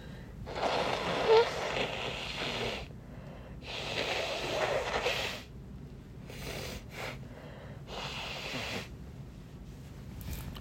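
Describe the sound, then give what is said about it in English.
Someone blows their nose in several long, honking bursts, roughly four forceful exhalations separated by short pauses, with a couple of brief sniffs between them. “So I'm, I'm gonna blow my nose.”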